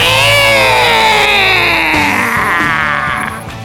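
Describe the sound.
A loud, drawn-out scream in the background of a TV crime scene as a man puts on sunglasses, holding for a couple of seconds and then sliding downward in pitch, with steady music playing beneath it.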